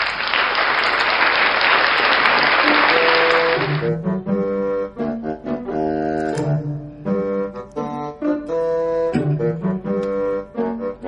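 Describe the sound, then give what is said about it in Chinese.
A loud burst of clapping and applause lasts about four seconds, then gives way to a bright, bouncy melody of distinct tonal notes that plays steadily to the end. No one speaks. “好，给点掌声哈。”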